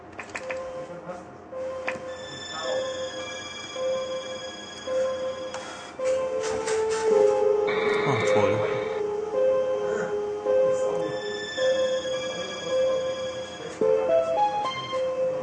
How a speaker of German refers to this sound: Dann gab es ein, zwei, drei Leute, die meinen, hey, das ist doch der Anfang von irgendeinem Metroid. Also ich glaube Super Metroid, deswegen habe ich das rausgesucht und das klingt anfangs so.